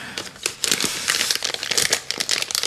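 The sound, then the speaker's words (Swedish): Crinkly rustling of a small gift bag holding a bag of Polly candy, a continuous run of sharp crackles and crumpling bursts lasting a few seconds, moderately loud with no talking. “Något som prasslar.”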